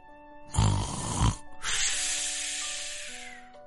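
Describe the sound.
A single exaggerated snore voiced by a person imitating a cat pretending to sleep: a rough, rumbling inhale followed by a long, breathy, hissing exhale, over a faint steady musical hum.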